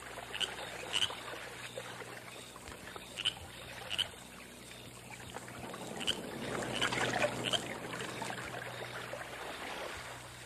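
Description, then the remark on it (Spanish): Oars dip and splash at an uneven, unhurried pace as a fragile canoe is rowed at night across the Rio Grande toward the Mexican side, over a steady wash of moving river water, fairly quiet, with no one speaking. “Vigilosamente, entre las sombras de la noche, una frágil canoa, impulsada por los remos de un desconocido, cruzaba el río Grande hacia el lado mexicano.”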